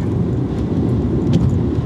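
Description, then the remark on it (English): A steady, loud low rumble of a car engine and road noise as the car accelerates hard on a highway with the pedal to the metal at 95 miles an hour after traffic opened up, with no voices over it. “Traffic opened up, by the way. The pedal, uh, pedal to the metal right there, huh?”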